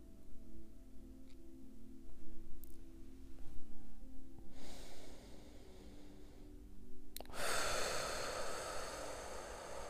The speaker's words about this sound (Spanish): Continúo con mi respiración profunda. Al inhalar por la nariz, llenar mi vientre y muy lentamente exhalo por la boca hasta quedarme sin nada de aire.